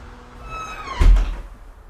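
A door swings shut with a single solid thud, preceded by a rising creak of hinges, with no talking.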